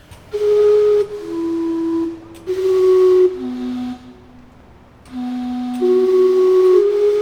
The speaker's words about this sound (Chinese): 哇哦，原来那是小樽音乐和馆欧鲁科鲁的蒸汽钟啊！这个蒸汽钟的作者啊是加拿大人啊，用一个青铜来打造的，高了五点五公尺哦，号称全世界最大的蒸汽钟哈。